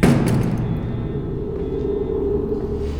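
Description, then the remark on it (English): A heavy door to an archives room in a basement opens with a low, steady rumble and a thin, drawn-out creak, continuous for a few seconds with no voices. “Where's the door to the archives room? Here it is.”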